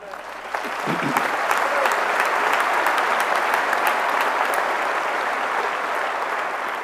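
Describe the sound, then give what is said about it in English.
An audience breaks into applause that swells within the first second and holds steady, a dense, fairly loud wash of clapping hands with occasional sharper individual claps standing out. “And that is an effort that we must applaud.”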